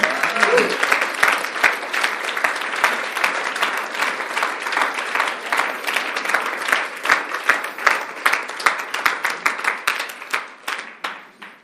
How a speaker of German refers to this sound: Wollen wir Ihnen mal einen herzlichen Applaus geben?